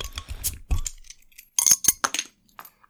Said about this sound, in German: So, du nestelst da ja offenbar schon an deinem Öffner, Schlüsselbund oder sonst was rum. Also wir machen offenbar gerade schon das Bier auf, ne?